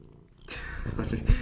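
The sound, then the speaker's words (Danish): A cat purrs after a brief moment of quiet, a steady rough rumble that continues to the end with a louder bump near the finish. “Der fik vi lige selskab af en kat, der gerne vil være med i podcasten.”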